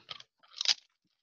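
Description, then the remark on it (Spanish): Two bursts of crisp crunching as a snack is bitten and chewed, a short crackle followed by a louder, longer one, with no voices. “Bueno, estamos aquí comiendo, echando una un snackcito.”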